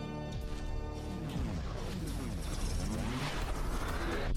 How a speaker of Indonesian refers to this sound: Pintu studio telah terbuka.